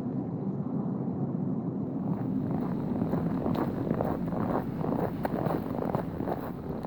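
A metro train pulls into a station with a loud, steady low rumble, joined partway through by rattling clacks and brief metallic squeaks as it rolls in. No one speaks.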